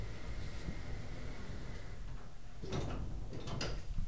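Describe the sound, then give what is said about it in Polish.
After the button is pressed, elevator doors slide shut over a steady mechanical hum, with a muffled scraping motion and a couple of clunks toward the end. No one speaks. “Muszę nagram, może jak się będą zamykać, to...”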